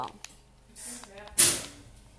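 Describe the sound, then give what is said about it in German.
A door shuts with a single sharp thud and brief rattle partway through, after some soft shuffling and a faint murmur of voices in the background. “Mama, mach die Tür bitte zu.”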